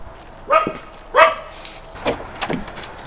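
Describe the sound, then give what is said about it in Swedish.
A small dog named Shakira barks inside a single-storey house on Kolbyvägen on the outskirts of Jakobstad: two sharp yips followed by a couple of quicker, higher barks, standing out alone against quiet surroundings. “Vem var det som, som skällde ut Det är min lilla Shakira.”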